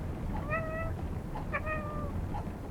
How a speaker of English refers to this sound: He meowed softly and glared back.